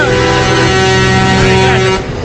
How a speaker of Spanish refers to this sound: usted escuchó mucha bocina, estamos conversando con algunos transeúntes.